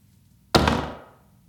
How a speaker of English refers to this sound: The back door of their house slammed shut on its own.